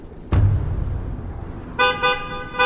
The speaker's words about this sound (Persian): به چند دقیقه نکشید یه ماشین تو فاصله ده متریمون زد کنار